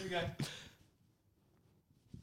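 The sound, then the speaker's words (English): A single small, sharp pop of a man cracking his back with his hands behind him, brief, right after a short burst of voice, followed by quiet background noise. “Yeah, it, it, sounded like a little pop.”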